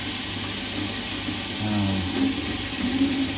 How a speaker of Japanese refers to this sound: 包丁も洗いました